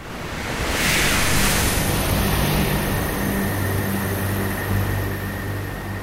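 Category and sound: nature, ocean waves and surf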